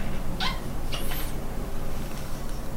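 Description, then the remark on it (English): A water bottle cap being twisted open, trying to do it quietly, gives two short, high squeaks about half a second apart, fairly quiet over a steady low background hum. “I'm just very say. quietly trying to open my water bottle without making hey, squeaky noises.”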